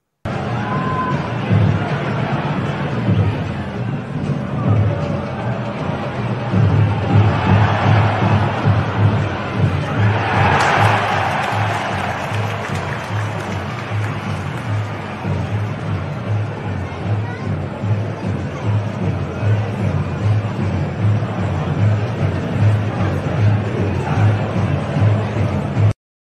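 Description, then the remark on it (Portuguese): A large stadium crowd of Flamengo football fans at a match roars and chants continuously. It forms a dense, steady wall of voices that swells briefly louder around the middle before settling back into sustained collective noise. “É isso aí, a galera lá no estádio, enfim, duas faixas, uma fora Marcos Braz, outra fora Landim, e aí se demonstra a insatisfação da torcida.”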